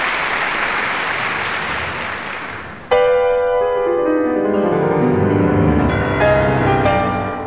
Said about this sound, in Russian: Тише. Слушайте музыку.